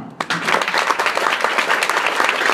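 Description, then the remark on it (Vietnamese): An audience bursts into sustained applause for themselves after being congratulated on moving up a level, dense overlapping clapping that starts abruptly and holds at a steady, fairly loud level throughout. “So give a big hand to yourself.”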